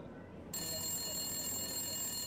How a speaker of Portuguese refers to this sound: Pois bem, pontualmente às cinco horas da tarde do segundo dia, o telefone vermelho voltou a tocar e alguns aplausos puderam ser ouvidos vindos da plateia que aguardava aquela ligação misteriosa.